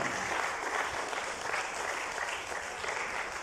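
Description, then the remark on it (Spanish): An audience applauds steadily for the Lord during a church sermon, a dense, continuous wash of many hands clapping at an even loudness throughout, with no voices rising above it. “Déselo este al Señor ese aplauso si se lo va a dar de verdad.”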